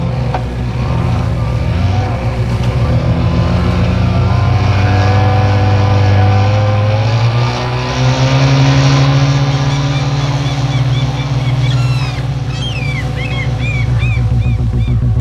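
A loud car engine is started and drones steadily, then revs up with its pitch climbing as the car speeds away, holding a strong roar throughout with faint higher whistling tones near the end.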